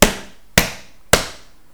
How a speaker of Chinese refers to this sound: 用力。踱步上楼，发出了很大声的声音。